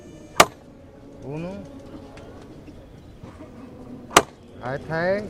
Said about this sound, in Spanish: Levantamos el tercer martillazo ¿eh? y suave. ¿eh? al tercero y suave. ¿eh?